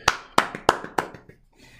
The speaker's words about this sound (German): Dafür Applaus an Herrn Gay.